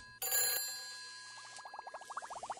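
An incoming call signal rings on a telescreen: a sharp electronic burst, then a steady bright tone with a rapid warbling trill rising at the end, loud with no one speaking.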